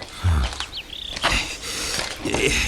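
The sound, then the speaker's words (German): Water pours steadily from a watering can as a woman waters flowers in a garden, a soft continuous splashing patter, with a few high bird chirps over it and a low thump near the start. “Sie gießt Blumen.”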